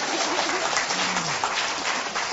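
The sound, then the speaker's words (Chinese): Steady audience applause, a dense wash of many hands clapping at once that holds at an even loudness for a couple of seconds, with a brief low tone faintly audible underneath. “能听明白、看明白，掌声告诉我，你不能接接。”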